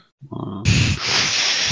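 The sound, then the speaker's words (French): A voice imitates a wolf, starting with a low guttural growl that swells into a loud, rough, breathy snarl, held for a couple of seconds. “Il y a moyen que je me transforme et puis que j'aille donner un coup de main aux flics Transforme en quoi En loup.”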